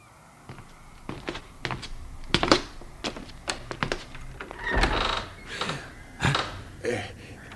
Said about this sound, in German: Er klopfte kräftig gegen die Tür.